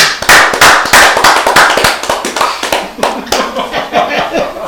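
A small group claps loudly and briskly for several seconds, the sharp hand claps overlapping in a dense, steady burst of applause with a hint of laughter underneath.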